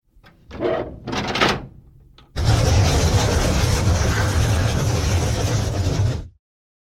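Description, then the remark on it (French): A few short creaks and scrapes, then a loud, sustained rumbling grind as the heavy doors of a building swing open for several seconds before stopping abruptly. No voices. “Je vous invite donc à me suivre et à m'aider à ouvrir les portes du bâtiment pour pénétrer dans le Panthéon des légendes.”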